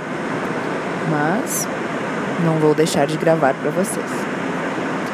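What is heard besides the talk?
airplane cabin engine noise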